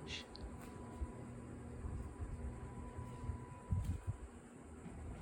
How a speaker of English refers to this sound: Listen. Oh, something kicked on. The, the laundry kicked on. The, the dryer kicked on.